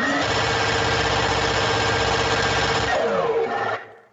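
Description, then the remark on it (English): A minigun whirs loudly in a dense, steady mechanical buzz for about three seconds, then its pitch drops as it winds down and cuts off. No one speaks. “all right so i will spin up the old minigun i ain't got time to bleed”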